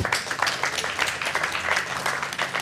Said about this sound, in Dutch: Mag ik een applaus